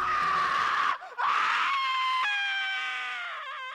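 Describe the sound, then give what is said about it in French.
A madman's loud, sustained howling scream from a single voice, pitched high and wavering, briefly breaking for a gasp before rising again into a long, strained wail that trembles at the end. “Le hurlement du fou reprit, Phil se redressa dans son lit en sueur.”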